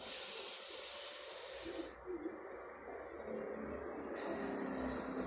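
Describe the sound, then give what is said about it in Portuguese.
A long, airy breath during a breathing exercise fills the quiet: a steady hiss of air drawn in through the nose, then a softer, slower rush as it is let out through the mouth, with no talking. “É, captura o ar pelo nariz e solta pela área bucal.”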